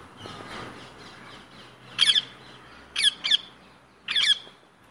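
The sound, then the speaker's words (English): Parakeets give four loud, harsh, high-pitched squawks: a single call, then a quick pair, then another burst. Nobody speaks; there's only a faint background hiss between the calls. “This is going to confuse the parakeets that are here.”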